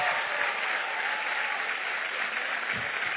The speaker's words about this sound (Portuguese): Aleluia. Aplauda forte aí. Glória a Deus.